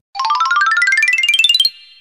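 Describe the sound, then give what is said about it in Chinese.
A page-turn cue in a children's audio story, signalling children to turn to the next page: a bright, rapidly pulsing electronic tone that climbs steadily in pitch for about a second and a half, then stops abruptly, with no voices. “这个声音，记得要翻到下一页哦。”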